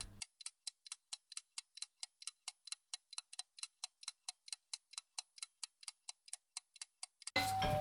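kitchen timer ticking

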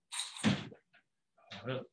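door being closed

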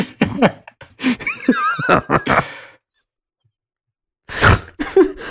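loud nasal snort

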